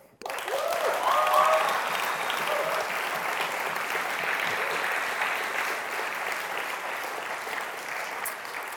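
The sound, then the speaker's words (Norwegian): A church audience applauds steadily to welcome newcomers, a dense wash of clapping that swells quickly, holds for several seconds, then tapers only slightly. A few faint whistle-like tones briefly rise above it early on. “Og så gir deg en klapp.”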